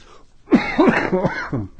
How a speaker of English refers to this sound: Sorry, guys. I'm trying to avoid coughing, but it's not working.